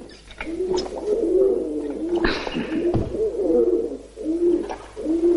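A pigeon at a cell window coos repeatedly in soft, throaty bursts, steady, as a man plays with it, with a couple of brief sharp knocks partway through and no voices.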